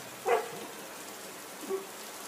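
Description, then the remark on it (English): A small dog gives a short, high yip, followed over a second later by a fainter second yelp, against a steady hiss like rain falling. “I'm serious, little dog.”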